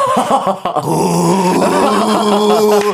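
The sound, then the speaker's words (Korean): A voice imitates the straining engine of a manual-transmission car left in first gear with the RPM not rising, a low, sustained droning groan with a rough, buzzing quality that holds steady for a few seconds, fairly loud. “그 엔진 안 올라가가지고 RPM 차하안 옮기대.”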